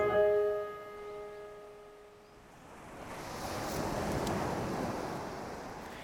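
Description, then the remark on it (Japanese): A short musical chord fades out, then ocean waves with white surf wash onto a beach at Shichigahama, Miyagi Prefecture, Japan, in a broad, steady hiss that swells and surges, with some wind rumble beneath and no voices. “えっと、今日はですね宮城県のさっき仙台に着いて仙台から車で40分ぐらい走ったところ七ヶ浜町というところにやってきたんですが目の前にね綺麗なビーチが広がってるんですよちょっと目を左に向けるとね白波立っていてサーフィンやってる方がいらっしゃいます”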